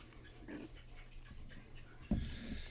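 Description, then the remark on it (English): A dog named Andy pants in quick, breathy puffs while playing with his toy, with a sudden louder thump and rustle near the end. No one speaks. “Oh, and if you hear background noise, a lot of background noise, that is Andy uh, playing with his toy.”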